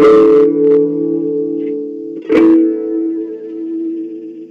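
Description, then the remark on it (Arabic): Plucked tanbur strings ring out: a bright strike at the start, then a second strike about two seconds later, each leaving long, steady, humming tones that sustain with rich overtones and no voices. “الميزة الثانية هي موضوع الأصوات الطنينية مم. يعني أنا مثلا وقت عم بضرب مثلا”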